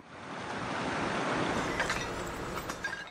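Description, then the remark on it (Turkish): Floodwater rushes steadily and loudly across cultivated farm fields in Eskişehir, Turkey, a continuous roar of churning water with faint splashes, no voices. “Sel Eskişehir'de ekil alanlara, tarlalara böyle geldi.”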